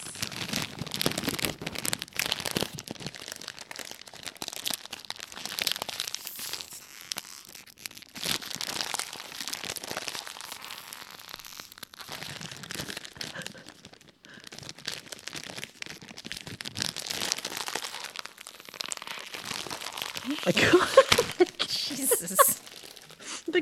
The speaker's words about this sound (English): Was that tissue? Tissue paper. Because, you know, Valentine gifts.